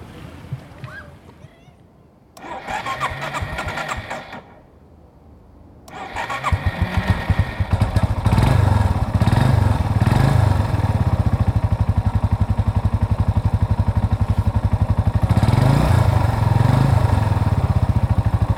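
A moped engine sputters through a couple of short cranking attempts, then catches and settles into a loud, steady buzzing idle with a rapid low pulse that continues to the end.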